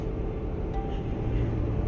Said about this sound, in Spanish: Se escuchan como un río de carros porque eh, me dirijo hacia, hacia la estación de tren para llegar a la ciudad de Nueva York a trabajar. Es por eso que escuchan como un río de carros